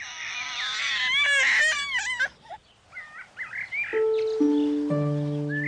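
A newborn baby cries in a close, shrill, wavering wail for about two seconds, then brief chirpy squeaks give way to a few sustained musical tones stepping downward.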